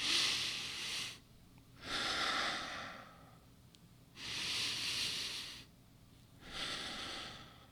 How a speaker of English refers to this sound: So the first one is a breathing exercise. It's pretty simple. It's just a long breath in through your nose and a long breath out through your mouth.